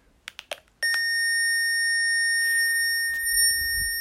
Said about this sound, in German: Man kann auch, wenn einem die Tonhöhe nicht so zusagt, auch die Tonhöhe verändern. Dazu muss die Fledermaus aus sein. Und jetzt drücken wir wieder die beiden Tasten gleichzeitig. Dann wird jetzt ein Ton abgespielt.